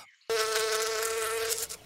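A bee buzzes loudly, one steady droning hum lasting about a second and a half before cutting off, with no voices.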